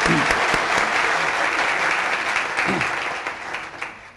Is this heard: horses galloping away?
no